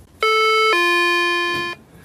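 A restaurant door bell rings out in two sustained electronic tones, a higher note then a lower one held for about a second, loud, with no talking over it.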